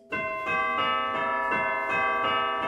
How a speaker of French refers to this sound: Pour composer une musique de Noël, certains vous diront que ce n'est pas bien compliqué. Vous mettez un son de cloche pour rappeler les églises